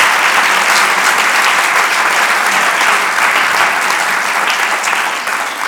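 Sustained audience applause welcoming a guest to a session, a dense, steady wash of many hands clapping at an even, fairly loud level for several seconds, tapering slightly at the very end, with no talking over it.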